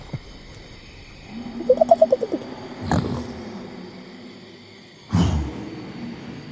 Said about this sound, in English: Swamp, marsh, jungle. Some mixture of the three.